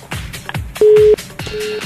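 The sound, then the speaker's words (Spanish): A telephone line tone sounds as a loud, steady beep, followed by a second fainter beep, both over a thumping rhythmic music bed with deep pulsing beats. “Teléfono, en link.”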